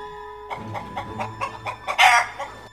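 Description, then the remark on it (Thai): A chicken clucks in a quick, steady series of short clucks, building to a louder, squawkier cluck near the end, heard up close with no talking. “เมื่อพระราชาพยายามจะลงจากบัลลังก์พระองค์ก็เห็นว่าตนเองนั้นไม่ใช่คนอีกต่อไป แต่ได้กลายเป็นไก่ต้มไปเสียแล้ว”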